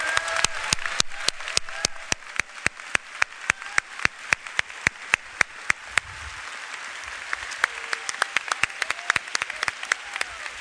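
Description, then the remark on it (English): A church audience breaks into sustained applause as praise, sharp claps rippling steadily for about ten seconds, with faint cheers and murmured voices of praise mixed beneath the clapping. “Let's give him five seconds of praise.”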